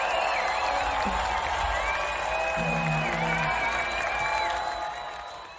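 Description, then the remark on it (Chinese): A live festival crowd cheers and claps in a steady, dense roar, with wavering voices and faint musical tones running through it before it fades slightly at the end. “这个视频看着是一个音乐节的现场哈”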